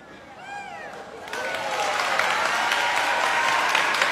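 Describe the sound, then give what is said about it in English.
Audience applause for a dog named Sunday swells into a loud, steady wash of clapping from a large crowd, with a few brief whistles and cheers near the start. “Uh, don't clap for him too much.”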